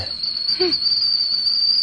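A whistling kettle sounds a steady, shrill high-pitched tone that holds for the whole stretch, with a brief low vocal blip in the middle.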